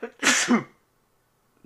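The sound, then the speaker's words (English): A single loud sneeze with a sharp breathy burst that fades quickly into silence, followed by a brief faint sound at the very end. “Bless you.”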